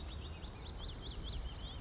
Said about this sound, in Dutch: Zwarte specht.